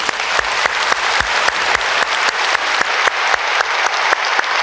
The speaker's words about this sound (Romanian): Vă rog eu, hai să dăm niște aplauze pentru salvatorii români.